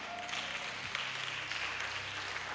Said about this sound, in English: Is it a good idea? Oh, I thought you'd be clapping.